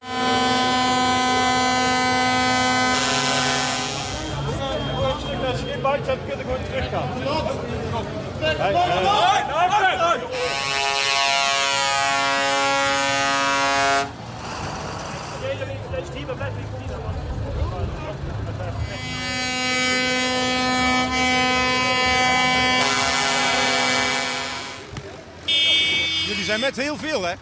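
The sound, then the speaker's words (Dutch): Tractor horns blare at a farmers' protest at the provincial house in Den Bosch, in long, loud sustained blasts, several overlapping, with short breaks between bursts and a murmur of crowd voices and engine noise underneath. “Ja, ze gingen ook met trekkers. Dat was een van de eerste keren dat we dat zagen. Naar het provinciehuis in Den Bosch.”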